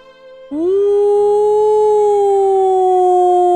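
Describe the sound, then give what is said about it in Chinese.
A loud, wolf-like howl begins after a brief quiet moment, sliding upward in pitch and then holding a long, steady, tonal note for about three seconds with no talking. “看着金色的月亮，使出浑身的力气，就像狼一样放声嚎叫起来。”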